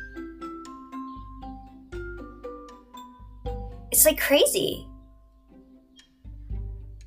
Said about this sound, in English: I can hear the bird i'm going to give a moment of silence and if you can hear the birds